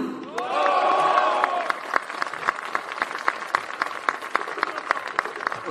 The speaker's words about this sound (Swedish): Stor applåd, stor applåd.